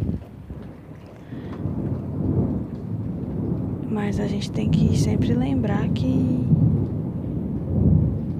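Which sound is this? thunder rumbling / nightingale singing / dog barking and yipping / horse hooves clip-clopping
thunder rumbling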